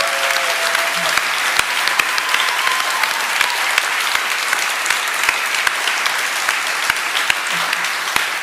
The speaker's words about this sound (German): Mal einen riesen Applaus auch an die beiden. Wirklich.